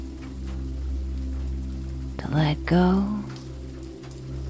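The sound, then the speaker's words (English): Steady rain patters softly on a surface, a continuous even hiss in the background while a calm voice speaks briefly over it. “Cozy autumn vibes and rain sounds help you fall asleep in tonight's rainy bedtime story.”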